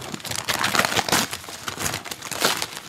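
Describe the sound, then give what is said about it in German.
Gift wrapping paper crinkles and rustles continuously as a present holding a black short-sleeved shirt is unwrapped close to a microphone, with dense, irregular crackling bursts that swell and fade over a few seconds. No one speaks. “das ging sie hier nah am Mikrofon, damit man das schön Knispeln und Kruspern hört.”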